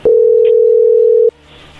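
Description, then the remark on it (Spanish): A single steady telephone tone as a phone call connects, loud and mid-pitched, holding unbroken for just over a second before cutting off abruptly, leaving faint line hiss behind. “A ver, ahí entró la llamada, no haga ruido.”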